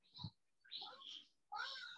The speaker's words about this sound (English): I also have a loud cat.